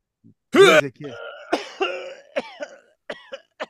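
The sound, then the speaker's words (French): A voice imitates retching and vomiting: one loud, harsh gagging burst, then a string of shorter strained, gurgling heaves that gradually fade, alone. “peux-tu me crisser ton vomi”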